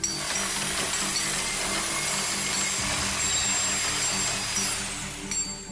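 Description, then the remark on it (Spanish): A concrete drill grinds steadily and loudly during neighbours' major building works, a continuous harsh whine with rattling mechanical undertones that persists throughout before easing slightly near the end. No one speaks. “El sonido del taladro de concreto perfora mi cabeza cual máquina de dentista amplificada”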